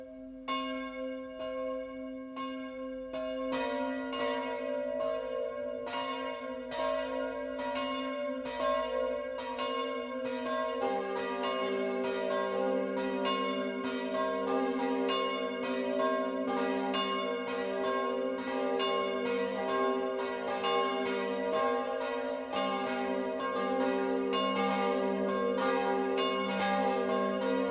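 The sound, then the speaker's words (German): Church bells of the Catholic parish church St. Ottilia in Rüdenau, Lower Franconia, Germany, ring out a steady 12 o'clock midday peal, several bells layering their strikes into a continuous, resonant wash that stays loud and full throughout, with no voices. “Das Mittagsläuten kommt heute von der katholischen Pfarrkirche St. Ottilia im unterfränkischen Rüdenau.”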